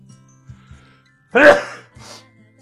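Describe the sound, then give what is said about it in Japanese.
A single sharp, loud sneeze bursts out after a quiet moment, followed by a softer breathy exhale, with no talking around it. “くしゃみでそう、くしゃみでそう。”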